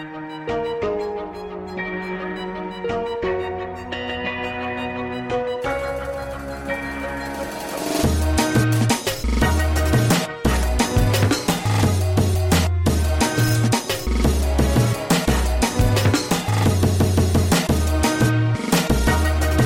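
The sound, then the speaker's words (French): Breakcore music from a 2014 album, mixed with violins: a melodic, tonal opening gives way after several seconds to loud, frantic chopped drum breaks and heavy booming bass, dense and relentless with brief abrupt cuts. “Le travail de construction musicale dans le breakcore est vraiment impressionnant et peut être déroutant”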